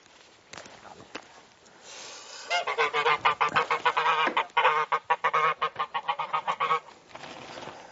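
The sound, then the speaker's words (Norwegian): A mother duck with her ducklings in an enclosure gives a loud run of harsh, honking calls, rapid and rhythmic for several seconds before quieting, with faint rustling around them. “Og kyllingene går rundt og hakker i gresset og koser seg.”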